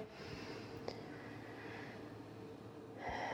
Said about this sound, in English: I invite you to just breathe in deeply the breath of God. Let it fill your lungs. I don't hear any breathing, y'all. Let's try that again. Breathe in deeply